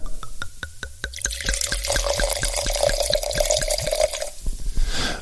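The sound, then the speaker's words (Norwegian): Wine from a 2020 bottle glugs steadily into a glass, a rapid rhythmic gurgle with a rising ringing tone as the glass fills, then a few final drips. No one speaks. “og denne eh, jeg har i, i, hånda her nå, er 2020, eh, som jeg nå skal helle i glasset.”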